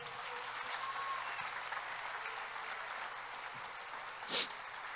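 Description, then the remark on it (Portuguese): An audience applauds for Jesus, a dense wash of many hands clapping at once that holds for the whole stretch, with one sharper clap or shout standing out near the end. “Dá um aplauso a Jesus.”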